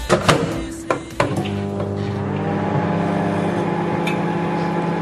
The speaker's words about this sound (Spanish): ¡El microondas! Muy bien, el microondas. Ole, ese ruido ha sido clave, ¿eh? Sí, sí, el del final. el pitidito.